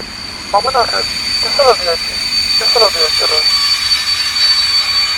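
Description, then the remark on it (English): A sustained, high-pitched metallic squeal of train wheels braking as the train stops at Kisaragi Station runs steadily through the whole stretch, with a rumbling background and short bursts of muffled talking over it. “The train stopped, but this is not where I want to go.”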